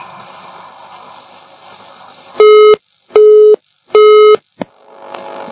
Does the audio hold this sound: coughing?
no